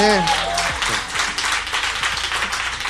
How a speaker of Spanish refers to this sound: Muy bien, aplauso también para él.